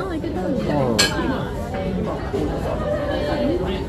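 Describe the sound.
A busy izakaya atmosphere at a Tsukada Nojo restaurant where people drink and eat gyoza: overlapping chatter from many voices while dishes and glasses clink here and there, with one sharper clink standing out near the middle.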